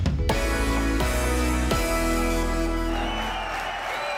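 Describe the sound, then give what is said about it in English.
Loud amplified live music booms from a festival main stage on a Saturday night without a headline act, with big sustained chords changing every second or so, while a wash of crowd noise swells underneath toward the end. “This is the sound of Saturday night and the main stage at a music festival without a headline act.”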